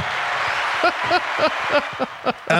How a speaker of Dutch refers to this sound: Hebben we, een, hebben we ook een applaus?